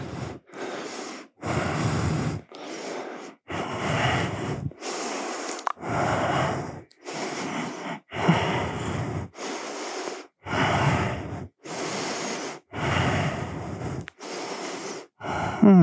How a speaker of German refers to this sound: Atme, halte.